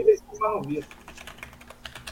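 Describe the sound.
A person types rapidly on a computer keyboard at a steady clip, the clicks fairly quiet, with a brief murmur of voice at the start.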